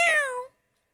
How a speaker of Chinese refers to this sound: 喵